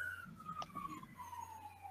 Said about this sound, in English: And somebody's having issues there in Southern California, it sounds like. Oh, did you hear the siren?